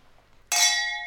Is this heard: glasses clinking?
yes